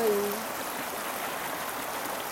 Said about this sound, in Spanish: Y yo el día de hoy soy muy afortunada y justo ahorita estoy al lado de un río vivo, dentro de la Ciudad de México y está atardeciendo